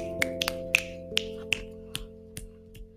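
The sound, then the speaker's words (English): A series of about eight finger snaps made while scrolling through a list, sharp and bright at first, then gradually softer and more spread out, over a faint steady background hum. “My snapping is getting sad because I'm trying to scroll through them all.”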